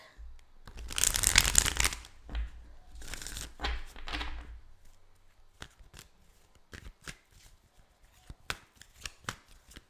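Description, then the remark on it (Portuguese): Tarot cards being shuffled: two loud bursts of rapid, crackling riffles, then a string of crisp, isolated snaps and taps as the cards are handled, with no talking. “agora sim, bota abrindo com o tarô.”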